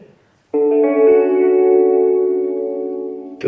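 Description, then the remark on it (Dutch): After a brief quiet moment, a small radio mounted on a bicycle's handlebar is switched on and abruptly plays a loud, sustained chord of Flemish music with a processed, echoing tone that holds steady for about three seconds. “Dat is een radio. Ik heb die op het stuur van mijn fiets gemonteerd.”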